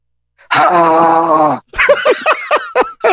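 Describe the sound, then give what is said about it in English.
A voice lets out a loud, sustained growling groan, imitating a zombie, lasting about a second, then breaks into a burst of choppy laughter. “That's the noise they made.”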